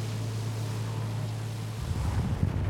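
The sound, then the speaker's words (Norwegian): A small dive boat's engine drones steadily under loud, gusting wind and the wash of waves out at Stråholmen as the sea starts to build, then the hum drops away and choppy buffeting wind rumbles against the microphone. “Ja, det er det, altså vind. Merker bølgene nå.”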